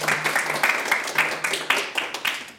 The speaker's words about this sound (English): Big round of applause.